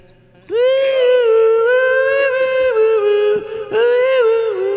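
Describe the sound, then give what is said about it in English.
A person hums a steady, sustained tone into a phone, holding it for several seconds with a brief break near the end, over a faint constant electrical hum. “I just, I just hear you humming into a, a phone.”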